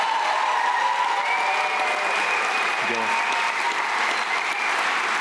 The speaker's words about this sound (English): Let's give them applause as they leave the stage.